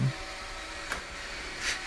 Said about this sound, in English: um, and then you you hear what you all know because you're pets and have lived in this time, the start of a robot vacuum.